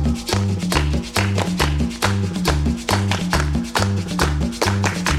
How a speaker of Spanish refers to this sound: Bien, bien, bien, bien, muchachos, con las palmas al ritmo, con las palmas al ritmo.